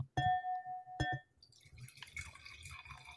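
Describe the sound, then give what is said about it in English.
Two quick glassy clinks ring out, then a drink is poured into a glass, a steady gurgling trickle whose pitch climbs as the glass fills. “Oh no, I was just pouring.”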